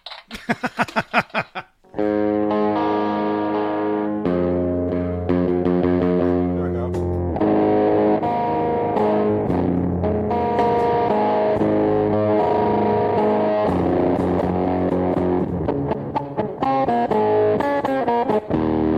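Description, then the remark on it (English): A distorted electric guitar, a replica Kramer rather than an actual Kramer guitar, opens with a burst of quick, choppy strums, then rings out in loud, sustained chords and lead notes that hold steady for the rest of the passage. “This is a replica. This is not an actual Kramer guitar.”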